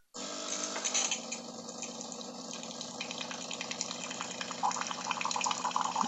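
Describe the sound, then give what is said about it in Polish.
Water pours steadily from an espresso machine nozzle after its plastic knob is turned to the left, over the low hum of its pump, a continuous stream with slight splashing variation and no talking. “I jak przekręcę w lewo, zacznie się lać woda i to brzmi tak.”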